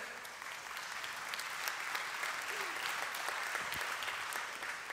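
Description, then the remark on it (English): A crowd applauds for the Holy Spirit steadily for several seconds, a dense, even wash of many hands clapping at once, with a faint voice briefly audible underneath. “and clap for the Holy Spirit because that was not me.”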